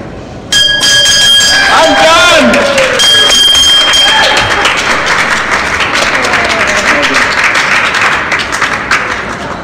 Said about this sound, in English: With Roswell Park president and CEO Dr. Candace Johnson by his side, Sandy rang that bell after successfully completing lengthy treatment for prostate cancer.